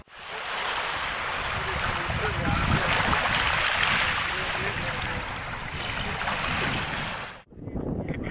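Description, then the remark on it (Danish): Steady rushing of water at a fishing spot mixed with gusty wind buffeting the microphone, continuous for about seven seconds before a brief cut, then resuming slightly thinner. “Nu er vi flyttet hen til øh, vandet, hvor vi øh, fisker, eller øh, starter med at fiske.”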